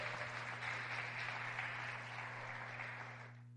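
A church audience claps together in praise to God during a sermon, a dense, steady wash of applause that holds for a few seconds before tapering off, with a low electrical hum running underneath and no talking.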